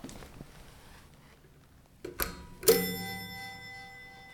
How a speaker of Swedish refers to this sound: Men nu knackar vi på!